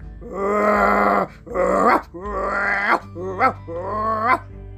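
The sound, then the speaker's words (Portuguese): A voice imitates a dog growling: five drawn-out, rumbling growls in a row, loud, with short pauses between them and no other talking. “Justo nesse momento, surgiu junto dele um cão medonho”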